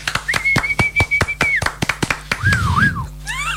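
A long, steady whistled note holds for over a second, then gives way to warbling, swooping whistles like someone calling a dog, all over a fast run of sharp, rhythmic applause claps.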